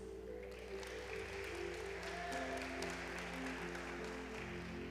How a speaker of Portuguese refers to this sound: Quem aqui torce para o Santos? Levanta a mão. Três corajosos. Uau. Palmas para os Santistas.